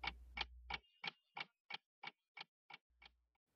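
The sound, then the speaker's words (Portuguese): A clock ticks steadily, about ten crisp, evenly spaced ticks at a quick pace, clear, with a faint low hum at the start and end and no voices. “Vamos usar o nosso relógio do tempo colocando para voltarmos ao período homérico, o qual o mito se fazia presente.”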